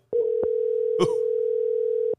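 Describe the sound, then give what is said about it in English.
A steady, unbroken telephone dial tone hums at a single mid pitch for about two seconds as a phone call is placed, with a few faint clicks and a brief burst of noise partway through. “Let's phone Bob the Mad Trucker.”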